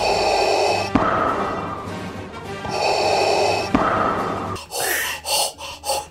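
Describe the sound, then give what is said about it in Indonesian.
A voice imitates CPR rescue breathing, as given mouth-to-mouth to a drowning swimmer: two long, loud blowing breaths, then a quick series of short puffing breaths, with no talking. “makanya menurut gue CPR uh, terus yang tau gak sih kalau orang berenang kelelap terus lu langsung kayak kasih nafas buatan kayak”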